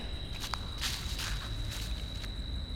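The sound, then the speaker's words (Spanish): Several footsteps crunch at a steady walking pace over a constant low rumble and a thin high-pitched whine; no one speaks. People walking alone for more than 15 minutes. “¿Te has dado cuenta que llevamos más de 15 minutos caminando completamente solos?”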